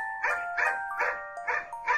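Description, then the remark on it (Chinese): A pet dog named ET whines and growls in anger while fighting over his dog bone. The sound comes in five short, evenly spaced bursts, fairly loud and mid-pitched, over a faint steady hum. No one speaks. “ET 抗议了，他很生气，呜呜地叫着，和我们每个人争抢他的狗骨头。”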